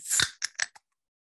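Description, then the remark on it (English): A can of Breckenridge vanilla porter beer is cracked open: a sharp pop with a short burst of fizzing hiss, followed by three quick, light metallic clicks, with no voices. “so I'll give that a nice little crack for everybody out there. They want to take a quick listen here.”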